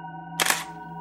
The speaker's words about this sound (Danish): Han tog også et billede af hende med sit kamera.